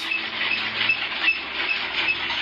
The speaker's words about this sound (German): Wenn die Waschmaschine nur noch so klingt